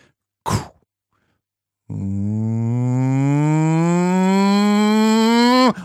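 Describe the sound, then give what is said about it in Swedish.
A voice imitates an airplane's jet engines revving up just before the plane begins its takeoff roll: a short breathy burst, then a long, loud droning hum that climbs steadily in pitch for about four seconds before cutting off. “Och det där när motorerna varvas precis innan planet börjar rulla.”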